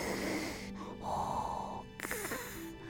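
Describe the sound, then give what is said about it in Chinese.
A voice imitates a father's snoring with loud, rasping, snorting breaths in and out, ending in a brief voiced wheeze. No words are spoken. “这个好像就是爸爸的打呼声呢。”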